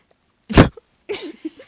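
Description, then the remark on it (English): A woman spits onto a microphone: a single loud, wet spitting burst hits right up against it, harsh, followed after a short pause by a few soft voiced sounds. “She straight up just spit on the microphone.”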